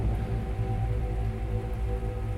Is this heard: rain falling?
yes